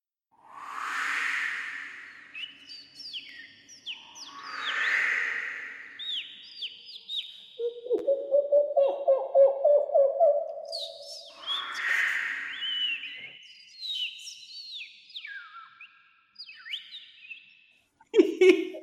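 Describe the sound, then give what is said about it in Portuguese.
A person imitates birdsong by whistling: quick high chirps and gliding trills, a lower warbling run in the middle, and breathy whooshing puffs between phrases, with no talking. “Eu sei imitar pássaros, estás a ver?”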